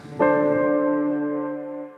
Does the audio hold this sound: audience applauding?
no